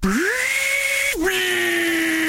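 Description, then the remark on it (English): A Ryobi 18-volt cordless drill driver whines as it spins up to a steady high pitch, briefly cuts out, then runs on at a slightly lower speed. Loud, with no talking. “18 volt drill driver.”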